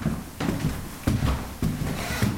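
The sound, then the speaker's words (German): Slow footsteps on creaking wooden stairs and floorboards in a historic house: four heavy, evenly spaced thuds with a dull woody resonance, over a low room hum and no talking. “Über knarrende Treppenstufen und Holzdielen gelangen wir in einen Raum mit einer großen Fenstergalerie.”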